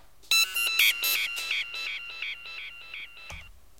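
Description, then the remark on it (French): A detector's electronic alarm, set off when someone touched it, chirps in a fast, steady run of bright beeps for about three seconds, growing slightly softer, then stops with a dull thump. “C'est parce que t'as touché mon, ah mon détecteur de.”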